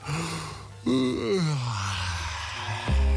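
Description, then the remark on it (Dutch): A radio host on Avro 3 gives a single drawn-out yawn, starting with a sharp intake and sliding down into a long, low, moaning exhale, moderately loud with no talking. “Zal ik een voorzichtig gaapje op je loslaten?”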